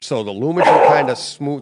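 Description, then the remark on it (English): A large 60-pound female house dog gives a loud, rough bark that cuts in over a man's speech, one brief burst in the middle of his sentence. “That's my dog.”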